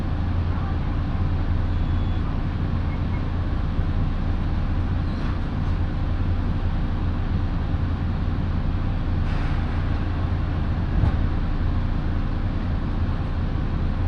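Steady low rumble of a local train running on the Minobu Line between Shibakawa and Minobu, Japan, a constant droning hum with a few faint clicks and knocks from the wheels, and no talking.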